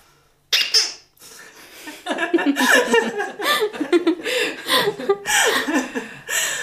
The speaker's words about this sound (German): Und wenn jemand etwas Unerlaubtes sagt, also ein Tabu bricht, dann kommt das sogenannte Quietschi zum Einsatz.